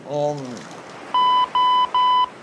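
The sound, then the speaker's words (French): An answering machine beeps three times, evenly spaced steady electronic tones, loud, after a brief vocal sound at the start. “Ah Tu entends C'est le chant des tortues amoureuses pas du tout, professeur, c'est votre répondeur.”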